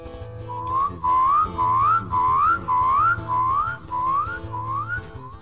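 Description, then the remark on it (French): A voice imitates big frogs calling: a run of about eight loud, rising whoop-like calls over a low buzzing drone, repeated in a steady rhythm with no talking. “Il y en a d'autres qui font. Et les plus grosses.”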